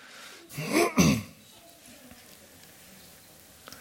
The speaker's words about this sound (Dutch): En hoesten.